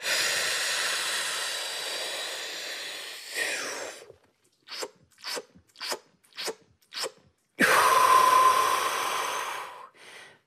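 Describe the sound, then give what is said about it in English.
A trained freediver takes a long, deep breath in, followed by six quick, evenly spaced gulping sips of air, packing to draw more air into the lungs, then another long, loud rush of breath, with no talking. “And that's called packing.”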